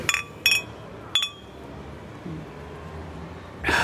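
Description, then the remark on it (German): Beer glasses clink together in a toast in a bar, several quick, bright strikes with short ringing tails; a quiet murmur sits underneath and a final clink lands at the end. “Und dann sind hier kaum Touristen, sind hier Leute, die nur so ein Bier trinken wollen, wie wir jetzt auch. Prost.”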